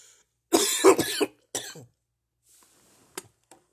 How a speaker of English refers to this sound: That was just cough.